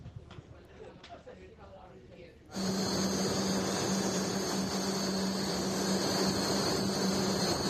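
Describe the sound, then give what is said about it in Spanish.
After a few quiet seconds, the loud, steady humming of a supercomputer in a room at the Donostia International Physics Center cuts in abruptly: a dense roar of fans with a low drone and a thin high whine that never lets up. “Bueno, hace de todo, pero suena, suena así, mira, A ver.”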